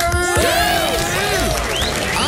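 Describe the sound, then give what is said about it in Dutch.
A crowd on the radio show Zomertijd applauds and cheers loudly and steadily for a phone-in caller, with rising and falling whoops and whistles layered over dense clapping. “Dames en heren, mogen wij even een luid applaus voor onze”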